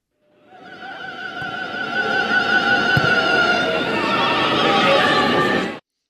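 SV Meppen football fans chanting in high falsetto voices at a match in Essen before 2,500 spectators, a dense, wavering wall of sustained pitches that swells in and holds steady for about five seconds before cutting off abruptly.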